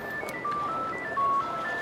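A classic Nokia ringtone plays on a mobile phone: a quick run of thin, pure electronic beeps at changing pitches, loud and close, with nothing else audible.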